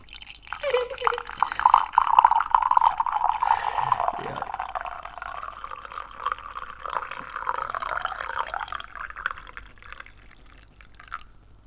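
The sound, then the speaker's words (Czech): Tea pours steadily into a Green Party mug, a continuous liquid stream with a rising, bubbling pitch as the cup fills, lasting around ten seconds before trailing off. “Následuje zvuk na levání čaje.”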